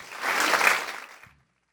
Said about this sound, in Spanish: Hoy regresa Tenchi Rodríguez a la Z101. Un aplauso ahí,